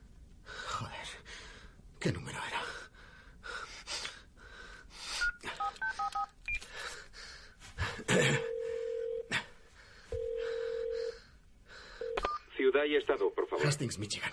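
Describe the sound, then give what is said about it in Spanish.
Several short electronic keypad beeps from a mobile phone, its screen dusted with sand, play in a quick run as a number is redialed, followed by two longer steady tones, with breathy, gasping vocal sounds throughout. “Toma el teléfono. Sopla la arena que ha caído sobre la pantalla y vuelve a marcar.”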